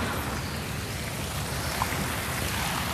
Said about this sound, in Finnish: Place de Vosgia koristavat kauniit suihkulähteet, joita on useampia joka nurkalla.